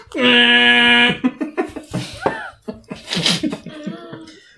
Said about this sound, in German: Und dann hört ihr noch so eine Tröte vom Kolinski-Markt.